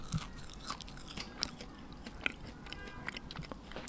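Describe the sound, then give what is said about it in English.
Crunching on a house cricket roasted in a toaster oven: a series of sharp, crisp crackles and brittle bites, irregularly spaced, with soft chewing between them and no talking. “It's kind of like shrimp, but the legs get stuck between my teeth, and I need some water.”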